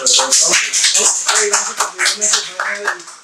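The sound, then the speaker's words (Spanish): Loud, steady applause welcoming viewers to the show El Palomazo, with many quick overlapping claps, joined by voices cheering and calling out over it for a few seconds. “Un aplauso, bravo.”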